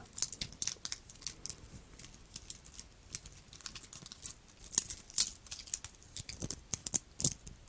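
The metal band of an old Casio watch being handled, with a steady stream of small, bright clicks and jingling rattles, some louder clusters, and no one talking.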